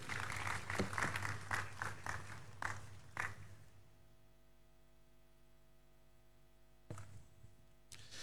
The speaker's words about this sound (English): Please take your seat, put your hand together for the Lord.